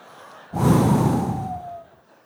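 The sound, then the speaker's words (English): A person does an exaggerated, heavy breath imitation of someone after church: one long, loud, rasping exhale lasting over a second, then it trails off into quiet. “I'm like, why are you breathing like that?”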